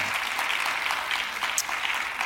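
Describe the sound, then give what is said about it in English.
A church audience claps steadily, giving the Lord a hand clap, many hands blending into a dense, continuous patter of applause that holds at an even level for a couple of seconds, with no voices standing out. “Come on, somebody give the Lord a hand clap and an amen.”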